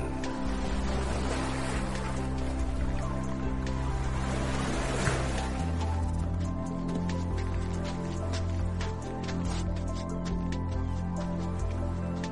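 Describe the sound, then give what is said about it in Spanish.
Ocean waves wash steadily and continuously, blended with a low, droning hum like a boat motor, with scattered small splashes and drips and no voices. “Historias que nos conducen a cualquier lugar y que ahora nos han traído a una esquina del inmenso mar.”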